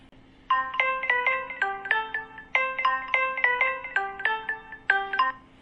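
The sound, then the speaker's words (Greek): A phone ringtone for an incoming call plays a bright, repeating melody of quick stepped electronic notes, sounding twice in succession, fairly loud with a faint steady hum underneath and no talking. “είμαι χαρούμενη που με πήρες τηλέφωνο.”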